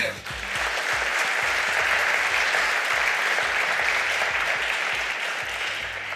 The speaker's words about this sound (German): Ein Applaus sehr gerne.